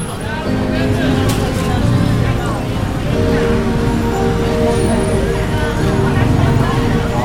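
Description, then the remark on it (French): Dense, steady roar of busy street traffic, with a constant hubbub of crowd chatter and a faint melodic tone threading through the noise: a musician playing a soul song, drowned out by the cars, amid street food stalls. “Tabouré en plastique au cœur du trafic, ça slèche les doigts de friture et de mango sticky rice, tandis qu'un musicien nous offre l'émotion d'une chanson soul noyée sous le bruit des voitures.”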